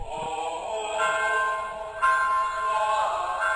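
A bright electronic chime from a prayer app on an Android phone, played outdoors as the app is opened, rings out in a few stepped, sustained tones, each new note layering over the last, clear with no voices.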